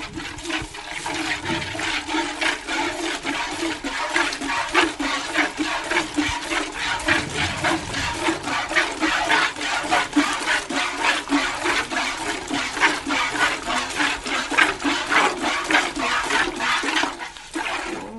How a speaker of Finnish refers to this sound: Joo, ja jos, jos kaikki eivät keksineet mikä ääni tämä oli, niin tämä oli, kertokaa. No, minulle, tuttu ääni Minulle kyllä oli tuttu siis ää, ää, ääni, tota, lypsämisen ääni. Olisiko jonkun tyyppisen? Se ei ehkä ollut kuitenkaan emali ämpäri.